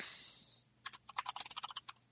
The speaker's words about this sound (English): Typing.